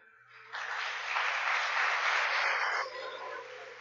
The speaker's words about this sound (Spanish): Aplauda al Señor.